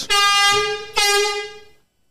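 Two loud, blaring air horn blasts in quick succession, the second held longer before cutting off, with a rich buzzing harmonic tone and no talking; the horn is sounded by the newsroom during The Press Project's daily news show.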